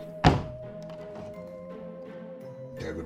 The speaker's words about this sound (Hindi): वो डर कर उठा और अचानक कमरे की खिड़की खुल गई